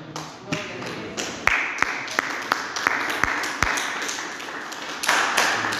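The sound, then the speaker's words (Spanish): A crowd claps steadily for several seconds as applause offered to the Lord, a dense wash of applause with a few sharp, louder individual claps standing out, swelling slightly toward the end. “El aplauso al Señor.”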